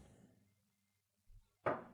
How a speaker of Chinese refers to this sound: 五花敲了敲门